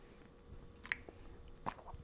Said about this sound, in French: puis je vais prendre une gorgée d'eau avant tout